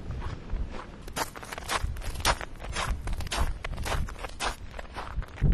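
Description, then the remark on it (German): Steady footsteps crunch through snow at a walking pace toward a house, each step a soft compression with a faint rustle of clothing, and a low background rumble of wind throughout. “Gehe ich mal wieder zum Haus, wo ich es gerade wiedergefunden habe, bevor ich es ganz verliere.”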